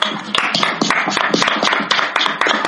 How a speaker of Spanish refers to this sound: Así que un aplauso por la marihuana.